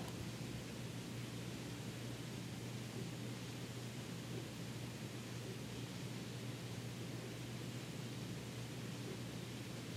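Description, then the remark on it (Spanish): Steady, even rainfall hisses without a break, a dense wash of sound that stays at the same level throughout, with a faint low hum beneath it and no voices. “y escucho los sonidos de la lluvia.”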